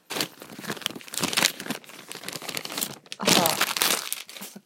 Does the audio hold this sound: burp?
no